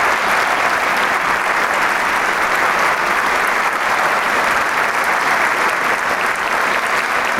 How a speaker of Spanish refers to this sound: Y el público sigue aplaudiendo y él sale una vez más a recibir el aplauso del público.